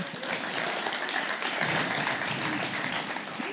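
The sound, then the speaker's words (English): A crowd applauds steadily as a woman comes up to speak, dense clapping at an even level throughout without breaks, with faint murmuring mixed in. “Why don't you guys give her a round of applause as she comes up?”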